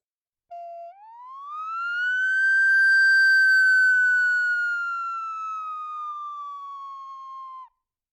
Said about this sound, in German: Wow, das ist ein Sweep, den man eigentlich nur in der Messtechnik anwendet, um Mikrofone und Lautsprecher zu ja, testen.